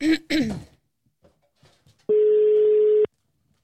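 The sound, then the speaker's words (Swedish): After a brief throat clearing, a single steady telephone ringing tone sounds for about a second, a flat mid-pitched beep heard alone and fairly loud, as on an outgoing call. “Då ringer vi.”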